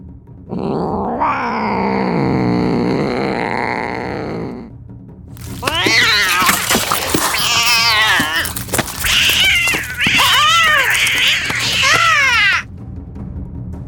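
An angry multicoloured cat yowls as it pounces to catch a rat: first a long, low, drawn-out wail, then a loud flurry of shrill rising-and-falling screeches with harsh, hissy edges, repeated rapidly for several seconds.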